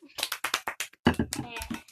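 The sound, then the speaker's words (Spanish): A quick run of about eight sharp hand claps from a small group, fairly loud, followed by a voice that starts talking as the clapping stops. “Aplausos, por favor.”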